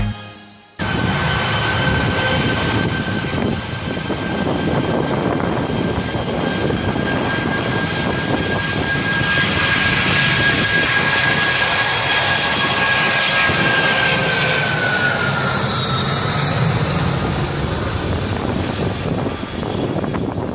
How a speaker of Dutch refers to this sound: Oh, daar ging hij zo, De mooie eh, zo'n 747. ja, het is de Queen of the Sky. Queen of the Skies. En, eh, en hij verdwijnt langzaam.